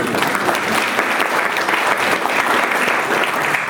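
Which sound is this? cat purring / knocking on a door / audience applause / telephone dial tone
audience applause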